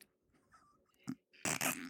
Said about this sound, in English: Never trust a fart.